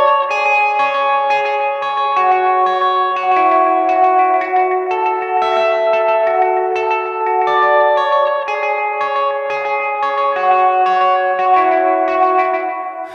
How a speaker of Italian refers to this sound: Alla fine del brano c'è un meraviglioso arpeggio di chitarra elettrica che avevamo già sentito di sfuggita alla fine del secondo ritornello.